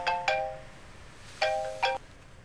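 A phone ringtone plays two pairs of quick, bright electronic chime notes, pausing briefly between the pairs. It sounds fairly close and clear, with no voices over it.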